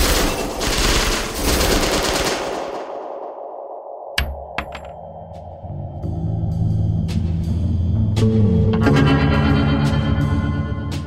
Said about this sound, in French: Et il repère trois personnes qui sont assises à une table de cette salle-là et euh, boum, il les abat.